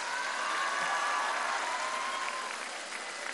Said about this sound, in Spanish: Un aplauso a los migrantes.